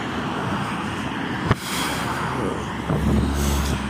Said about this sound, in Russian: Ой, как сильно ветер.